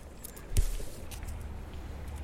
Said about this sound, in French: Essayez ça. Prenez une feuille, n'importe laquelle, vous l'écrasez, vous sentez.